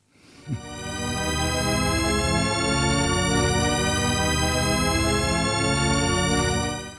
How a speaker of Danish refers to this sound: Jamen altså, det er jo, det er jo en, en shepherd tone, og shepherd tone er en, en form for audioillusion.